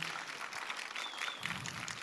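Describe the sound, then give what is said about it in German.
A steady wash of audience applause, many hands clapping at once in a dense, continuous patter that holds at an even level throughout, given for a sermon. “Also ja, gebt ihr ruhig einen Applaus.”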